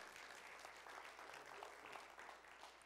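A church audience breaks into steady applause, many hands clapping in a dense, continuous patter that holds at an even level throughout, with no voices standing out.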